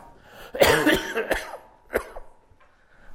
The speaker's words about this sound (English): I'll try not, I'll try not to amuse myself because that's just going to cause me to cough.